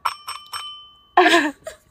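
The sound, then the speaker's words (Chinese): A bell used as a prop before answering a question gives three quick, bright dings in an even rhythm, their high metallic tone lingering briefly, followed by a short loud burst of a person's voice. “这个，对对对，就是回回答的铃声。”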